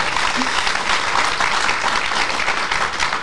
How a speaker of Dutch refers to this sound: Dat Mooi, dat mag voor geapplaudisseerd worden, ja.